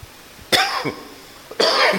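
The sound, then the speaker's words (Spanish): Two sharp, harsh coughs burst out, one near the start and another after a short pause, each loud and raspy with no talking around them; the person coughs because a fan was put on them. “yo les decía, no crean que es COVID, es que me pusieron el abanico y me hace toser, así fue ayer también.”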